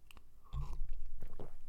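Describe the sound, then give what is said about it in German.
Someone sips coffee that is probably already cold: a soft low thump, then quiet wet mouth and swallowing sounds over about a second, with no talking. “ich werde jetzt noch einen Kaffee schlürfen.”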